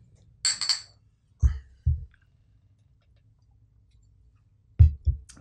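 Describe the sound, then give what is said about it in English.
Three glasses clink together in a toast, a quick bright cluster of chimes near the start, followed by several soft, dull knocks spaced apart amid otherwise quiet surroundings. “Cheers. Cheers. Cheers.”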